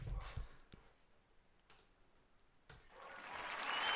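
A few sharp clicks and taps, then an applause sound effect of dense clapping that swells in and grows steadily louder to the end, with no one talking.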